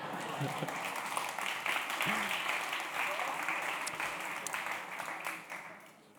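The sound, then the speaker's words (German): A crowd applauds everyone who answered a question, a dense wash of many hands clapping at once, holding strong for several seconds before tapering off at the end. A few voices murmur underneath. “Das haben drei Leute gesagt, verteilt die Gutscheine. Applaus für alle.”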